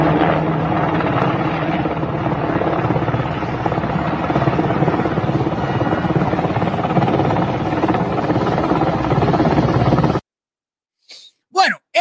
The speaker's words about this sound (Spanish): eso nada más y nada menos, ya quítame eso, eso nada más y nada menos es un helicóptero de lo que Estados Unidos le donó a Afganistán que trae una persona ahorcada.